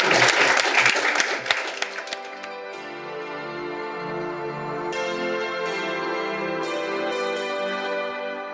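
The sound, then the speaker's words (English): A crowd bursts into loud, dense applause for a panel for about two seconds, then the clapping thins and fades as steady instrumental music takes over. “Please join me in thanking our wonderful panel.”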